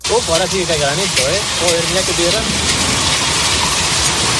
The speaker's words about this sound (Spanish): Parecía que nos habíamos olvidado de las lluvias, pero no, incluso granizo se ha podido ver esta tarde en algunas zonas de España, como en Madrid, Galicia y Bilbao.